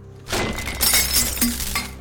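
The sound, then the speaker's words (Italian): A glass is slammed down on a table and shatters, a sudden loud crash followed by bright tinkling shards scattering over about two seconds, with no voices. “Lo afferri e lo sbatti sul tavolo.”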